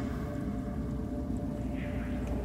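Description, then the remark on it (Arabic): A steady, continuous rush of flowing water with a deep low rumble, even in loudness throughout and with no voices or breaks. “سامع في صوت مويه”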